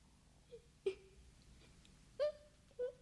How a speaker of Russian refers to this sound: Перепугалась давеча, вот и плачет за печкой.